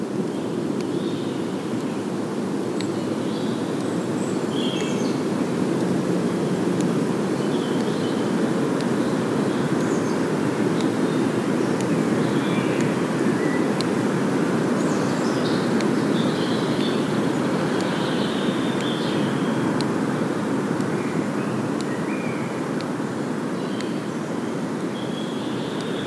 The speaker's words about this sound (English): storm is blowing. We can hear the wind in the canopy.